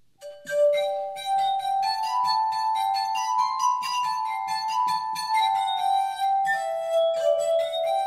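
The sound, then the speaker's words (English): Musical glasses play the Irish traditional folk tune "The Black Joke", sustained ringing glassy tones gliding through a lively melody with shimmering overtones, steady and fairly loud with no voices. “I will play today Irish traditional folk song which is the black joke.”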